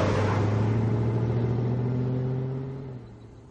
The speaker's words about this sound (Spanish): Se van en el coche.